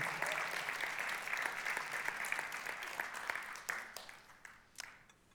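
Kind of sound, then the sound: crowd, audience cheering and applauding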